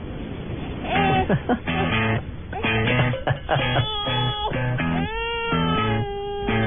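A pop song with sustained sung vocal notes plays loudly and continuously, its sound slightly muffled and thin, as if coming through a phone or small speaker.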